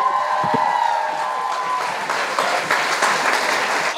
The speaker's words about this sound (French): Mais bravo. Euh, vraiment, on peut l'applaudir.